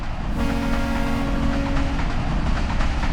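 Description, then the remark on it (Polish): A PKP train in Poland rolls steadily along the tracks at a fairly low speed, heard from inside the train, with a loud, constant rumble and rattle, while a horn sounds for about a second and a half early on. “Jesteście w pociągu.”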